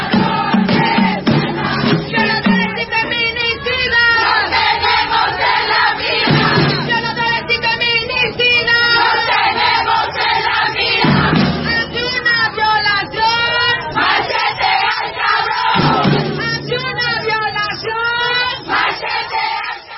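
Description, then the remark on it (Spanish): A large crowd chants a protest song in unison, voices loud and continuous with a steady rhythmic pulse, rising in repeated surges over about twenty seconds. “ahora vamos a escuchar una canción, porque les gustó la otra que, pusimos, eh, que sí esta es propia de México, o por lo menos yo no la escuché en Argentina.”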